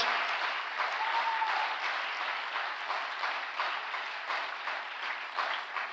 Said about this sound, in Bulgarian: Хайде, ако вярваш това, дай на Бога едно дарение на ръкопляскане. О, камон, ако пляскаш, ръкопляскай, като че наистина го вярваш.